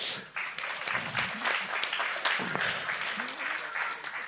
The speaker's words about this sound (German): Gib ihm einen Applaus.